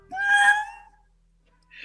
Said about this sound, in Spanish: Muy bien ese llanto